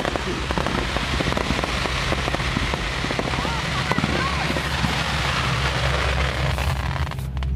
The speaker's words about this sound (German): Es klingt, als wenn es im Zelt ist. Ja. Das ganze Zelt ist erleuchtet. Alter Schwede, es ist ein Feuerwerk.